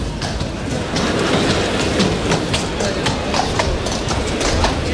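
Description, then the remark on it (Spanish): Picador horses' hooves clip-clop steadily as they enter a bullring during a bullfight, a quick repeated rhythm of sharp clicks on packed ground over a loud, continuous crowd-like rumble. “Ahí entran ya los caballos de picar.”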